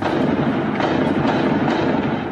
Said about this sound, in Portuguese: Os tiros e explosões podiam ser ouvidos a quilômetros de distância. Muito tiro, muito tiro, muito tiro, muito tiro.